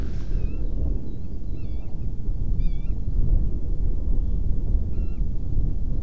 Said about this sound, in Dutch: Grutto. Baltslucht. Voor het eerst dat ik dat hoor dit jaar. Grutto, Grutto, Grutto.